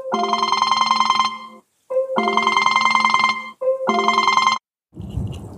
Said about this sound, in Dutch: Oké, dat was dus een belletje tijdens mijn opname.